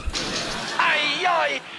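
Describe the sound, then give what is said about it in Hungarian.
A sudden thump of a head knocking into a door, followed by a drawn-out, wavering vocal groan of pain, fairly loud. “sajnos most sincs szerencséje ezekkel a fránya ajtókkal.”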